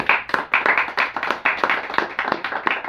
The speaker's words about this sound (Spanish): ¿Cuántos dan palmas al Señor?